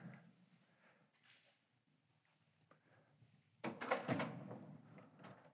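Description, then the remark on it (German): After a few seconds of quiet room tone, the handle of a locked museum exhibition door is yanked and the door rattles and thuds in a short, loud burst of clattering jolts. “Und die Tür ist verschlossen.”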